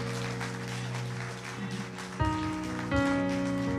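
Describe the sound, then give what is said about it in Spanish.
A crowd claps steadily and loudly, giving a loud round of applause to Jesus during a sermon, a dense rain-like patter of applause over sustained keyboard chords that shift twice near the end. “Vamos a darle un aplauso fuerte a Jesús.”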